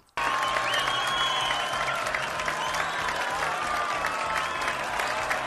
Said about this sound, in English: so there you go you can hear the crowd cheering and going wild for you while uh, you hold up this sign